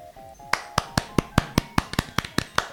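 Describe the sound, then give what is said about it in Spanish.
Hands clapping in applause, about a dozen sharp, crisp claps in a steady, fairly quick rhythm, with no voices, after a brief quiet start with a faint tone. “Aplaudimos sin, sin tratar de golpear el micrófono, que en mi caso es un tanto difícil.”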